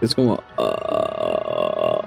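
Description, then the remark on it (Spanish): A voice imitates a long, low, rattling croak from the throat, the sound of air left in a dead body passing over the vocal cords, sustained for over a second after a brief spoken lead-in. “Eh, sí, eso, ese es un sonido de, de, aire metido en un, en un, cuerpo muerto, porque te sonía.”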